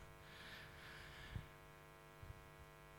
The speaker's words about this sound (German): Aber ich merke gerade, es ist auch ganz angenehm hier oben, weil hier geht der Ventilator hin.